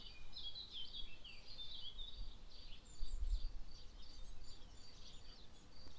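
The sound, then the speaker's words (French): Several birds sing and chirp continuously, their bright overlapping calls layered over a low outdoor rumble, with no voices. “Les oiseaux chantent, les abeilles virevoltent.”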